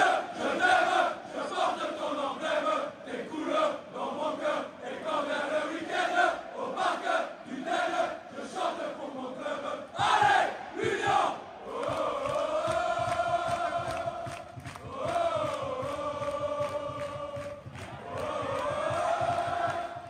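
A large crowd of supporters sings a rhythmic, well-known anthem in unison, loud and continuous, with rising sustained notes and the roar of many voices.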